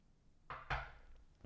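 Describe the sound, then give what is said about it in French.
A small sip of a drink: two quick, soft bursts of sound in a row, then a faint tap a moment later, with no talking. “Encore euh, petite gorgée de prise.”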